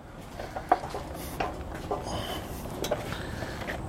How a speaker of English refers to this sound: How do I pick this up? Picking up a massive chop saw that we are storing in my office.